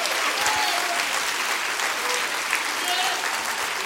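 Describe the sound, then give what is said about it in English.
A church audience claps their hands in rejoicing, a dense, steady wave of applause lasting several seconds, loud, with many overlapping claps and no pauses. “Come on, you need to clap your hands for that.”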